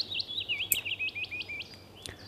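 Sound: willow warbler song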